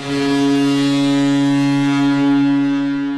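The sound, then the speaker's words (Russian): The Carolina Hurricanes hockey team's arena goal horn, heard by fans when the team scores, blares loudly and continuously with a deep, steady tone and rich harmonics, holding at full volume for about three seconds with no voices. “А когда Каролина Харрикейнс забрасывает очередную шайбу, то болельщики слышат вот это.”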